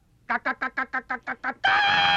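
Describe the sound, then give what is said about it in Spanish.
A voice imitates a frightened hen during an animal-noise game: eight quick, evenly spaced clucks followed by a drawn-out, loud squawk, alone with no talking. “Porque me sale muy bien. La gallina asustada.”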